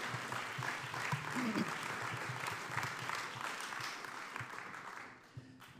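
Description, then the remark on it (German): Sustained applause from an audience at an event, welcoming a trainer called to the front: a dense crackle of many hands clapping steadily for several seconds before fading out near the end, with faint voices mixed in. “Genau, darf man einen Runde Applaus geben.”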